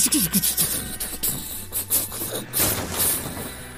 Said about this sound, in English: The cat rocket ship woke up with a start, its engines sputtering on